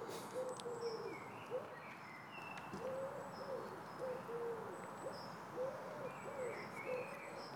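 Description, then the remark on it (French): Wood pigeons coo in soft, hollow repeated phrases, several birds calling back and forth, with faint chirps of smaller birds scattered over a steady outdoor hiss. “Et donc les pigeons ramiers se répondent les uns les autres.”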